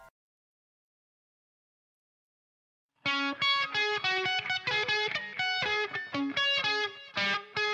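After about three seconds of silence, a loud, harsh distorted tone bursts in, buzzing with rich overtones and pulsing in short choppy stabs until the end.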